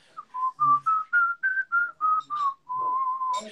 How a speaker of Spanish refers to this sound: ya cuando teníamos que tocarla, pues yo tuve que ponerme en la tarea de aprender a silbar. Entonces todos los días, bien juicioso, como si estuviera entrenando cualquier instrumento, empezaba a hacer escalas de silbidos.